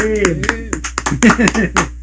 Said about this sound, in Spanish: Está aplaudiendo a la gente de producción.